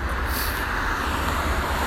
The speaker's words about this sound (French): Bon alors là je passe par une route avec des voitures parce que cet épisode est de nouveau en marché parlé.